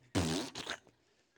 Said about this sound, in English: Ketchup bottle. I said, "What? What is that?" she, she was like, "Uh, I need ketchup for my steak."